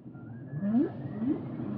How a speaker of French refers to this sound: Donc là, c'est une baleine qui... bah, qui vit sa vie de baleine, quoi.